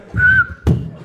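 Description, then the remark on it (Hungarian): A person imitates a car's short reversing parking sensor beep, warning before a collision while backing out in a parking garage, with one steady, high whistled tone lasting about half a second, fairly loud, then an abrupt noisy burst cuts in. “az a jó, hogy a kocsin van tolatóradar. Azért jó, mert mielőtt ütköző, van egy rövid sípszó.”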